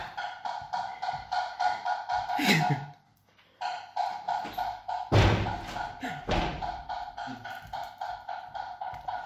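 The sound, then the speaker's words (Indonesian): A house door is handled and shut: a muffled thump, then a loud slam a few seconds later and another knock shortly after, over steady, indistinct background voices and rhythmic clatter. “Pas gua tutup pintu abang masih tetap depan rumah aja.”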